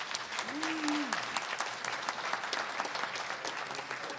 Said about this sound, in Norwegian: Syns vi skal gi han en applaus, faktisk.